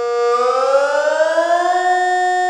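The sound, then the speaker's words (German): A loud civil defense siren wails steadily, its tone slowly rising in pitch over a few seconds, heard alone with no voices. “Der Sirenenalarm muss natürlich so dramatisch sein, auch um darauf aufmerksam zu äh, machen, dass es wirklich um etwas ernst es geht.”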